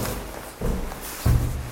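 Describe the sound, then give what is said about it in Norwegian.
A door opening in an old apartment building near Slottsparken and the embassy district in Oslo: two dull, low thuds about half a second apart over a soft, steady background rumble, with no voices. “Døra går opp i den gamle bygården, ikke langt unna Slottsparken og ambassadestrøket i Oslo.”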